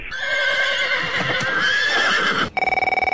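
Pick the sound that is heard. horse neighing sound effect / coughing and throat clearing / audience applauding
horse neighing sound effect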